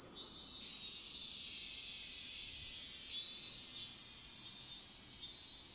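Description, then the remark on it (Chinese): Cicadas (semi) in a Japanese summer buzz in a steady, high-pitched drone that fills the whole clip, with a few louder swelling pulses rising and falling near the end. No one speaks. “这个就是属于日本的夏天经典的声音，semi，也就是蝉的声音哦。”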